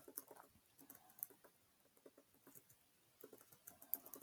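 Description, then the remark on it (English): Rapid, uneven clicking of keys on a computer keyboard, a quiet patter of small taps in bursts with brief pauses, no voices. “Um I don't care that you can hear me typing am I supposed to care?”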